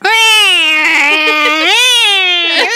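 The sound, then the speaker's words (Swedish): A person yowls in imitation of a cat in heat: one long, loud, wailing cry with a wavering pitch that dips and rises again, with no words spoken. “Vi kan inte låtsas att det är en sexkatt. En sexkatt är typ så här.”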